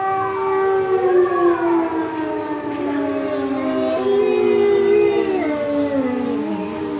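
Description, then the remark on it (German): A village fire-brigade siren in Austria, tested every Saturday at midday, wails steadily while several wolves at a wolf research centre on a hill above the village howl along, their long gliding voices rising and falling over one another in a loud, continuous chorus with no talking. “Und zu heulen beginnen die Wölfe übrigens immer pünktlich am Samstag zur Mittagszeit.”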